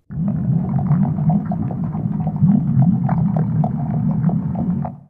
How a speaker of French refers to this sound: La soupe mijotée à gros bouillon.